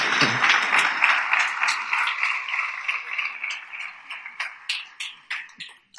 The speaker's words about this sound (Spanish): Si usted lo cree, denle un aplauso al Señor.